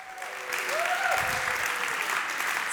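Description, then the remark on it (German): An audience breaks into steady applause for three mothers in the audience at an evening event, a dense wash of clapping that swells after a moment and keeps going, with a few faint voices calling out underneath. “Applaus für unsere drei Mütter.”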